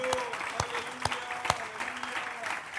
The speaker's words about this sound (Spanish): Dale un aplauso fuerte al Señor.